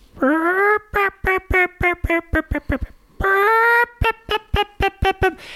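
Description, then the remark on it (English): A turkey hen call made by scratching a small friction scratcher, loud: twice, a drawn-out nasal yelp leads into a quick run of short, evenly spaced yelps, with no talking. “sit silently with these decoys out in a field, and you'll scratch it, and it'll make the sound of a hen, which goes.”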